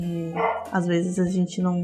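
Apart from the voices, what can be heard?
dog barking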